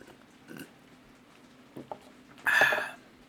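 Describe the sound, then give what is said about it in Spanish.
Someone drinks water, with a few soft swallowing sounds and faint clicks, then a louder breathy exhale after the last gulp. No one speaks. “Entonces, déjame tomar agüita.”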